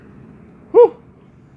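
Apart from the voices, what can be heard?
yawn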